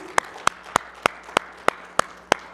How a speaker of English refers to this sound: Let's give him one more hand clap if you wouldn't mind, please.